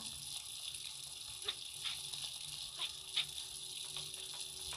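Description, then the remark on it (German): A steady hiss of running water from a tap, with a few sharp squeaky clicks of the handle being turned as the tap is turned off, fairly quiet, no voices. “Und hier einfach mal wieder den Wasserhahn aus.”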